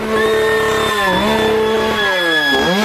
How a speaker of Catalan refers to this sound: Estem sortint al carrer, ens persegueixen. Mm. Ens persegueixen amb una motoserra.